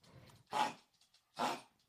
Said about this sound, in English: that's my dog coughing, by the way. um, it's a hairball, buddy.